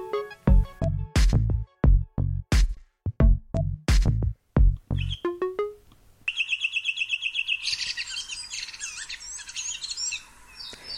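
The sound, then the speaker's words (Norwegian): A redwing thrush sings outside a window around four in the morning on Dønna on the Helgeland coast, trying to attract females and warn off rival suitors: a quick series of sharp descending whistled notes followed by a scratchy, twittering warble, with no other sounds around it. “Og det vi hører her, det er en rødvingetrost som prøver å tiltrekke seg damer og advare andre beilere.”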